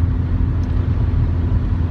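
Steady, loud road noise from inside a car moving on a lightly trafficked motorway on the way to Hamburg: a constant low rumble of tyres and engine with an even hiss on top, unbroken and without any voices.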